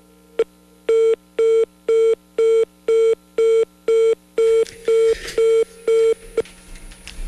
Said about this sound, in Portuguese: Infelizmente perdemos o contato. Hoje a telefone não está nos ajudando,